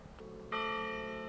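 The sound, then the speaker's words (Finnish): A church bell at the Espoo chapel cemetery in Finland strikes loudly about halfway through, its rich metallic tone ringing on and sustaining over a low background hum, with a fainter earlier toll just before. “Niin, oikeastaan aika sopivasti nuo kirkonkellot soivat.”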